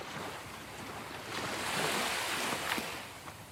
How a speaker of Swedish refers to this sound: Hör du havets brus?